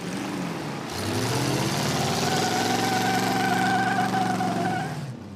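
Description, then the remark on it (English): A powerful supercharged car engine roars up loudly, then settles into a steady, throbbing idle with a faint high whine riding over the rumble, with no talking. “eBay even has cars with supercharged ponies.”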